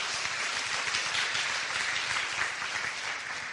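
A crowd applauds steadily for a few seconds, a dense, even wash of many hands clapping at once with no voices over it, holding a constant moderate loudness before easing slightly at the end.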